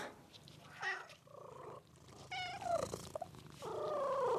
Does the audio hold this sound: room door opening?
no